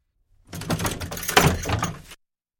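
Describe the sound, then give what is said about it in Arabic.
A door swings open with a rough, creaking scrape lasting under two seconds, moderately loud, ending abruptly with no voices. A mother opens the door of the family home to her son. “صاح أماه فتحت والدته الباب وبدأت في توبيخه”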